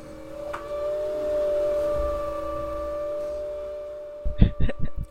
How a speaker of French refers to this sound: Mais ah, j'entends le vent. Ils se C'est quasiment comme un train qui passerait au lointain. Oui, mais j'espère que ça s'entend dans le micro